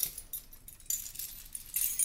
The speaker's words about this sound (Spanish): Espera, que yo creo que tengo las llaves.